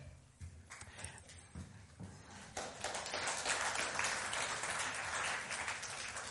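An audience breaks into applause for a man called to the front, before he has said anything, starting with a few scattered claps and swelling into dense, steady clapping that stays loud for several seconds, with no one speaking over it.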